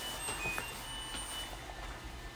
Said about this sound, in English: ooh, the washing machine is done, ooh, and the dryer just finished.